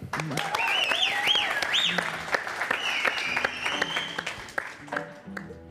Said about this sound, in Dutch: Mag ik een heel groot applaus, dames en heren,